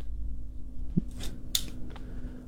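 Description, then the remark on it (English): A second set of keys, just found, jingles briefly, a couple of bright metallic clinks over a low steady hum, with no one talking. “I just found my second set of keys.”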